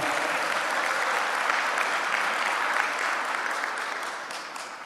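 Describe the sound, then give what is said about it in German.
An audience at a worship gathering claps steadily, a dense wash of many hands at fairly even loudness that eases off slightly toward the end; no voices stand out above it. “Ja, ihr könnt ruhig klatschen.”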